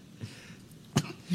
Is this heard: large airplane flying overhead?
no